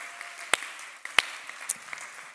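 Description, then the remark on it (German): A church audience at the Symphoniker in Nuremberg applauds steadily, a dense patter of many hands with a few sharper, louder claps standing out; no one speaks over it. The applause is for the audience watching online in Ansbach and Erlangen. “Hey, wie wär's, wenn, wenn wir hier aus den Symphonikern in Nürnberg mal unseren Freunden in Ansbach, Erlangen auch online, unserer ganzen Gemeindefamilie mal einmal einen riesen, riesen Applaus geben.”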